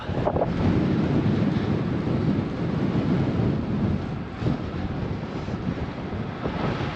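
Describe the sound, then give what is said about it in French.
Strong coastal wind in Denmark during the Tour de France roars steadily into the microphone, a dense low rumble with buffeting gusts, while surf washes faintly underneath. No one speaks. “Avec le vent dans la face, de ne pas se ruiner les genoux.”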